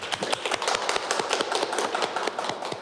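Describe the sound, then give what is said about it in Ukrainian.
A studio audience claps steadily to welcome a guest on a show, many hands producing a dense, crackling patter of sharp overlapping slaps at an even loudness, with no voices over it. “Ваші оплески традиційно.”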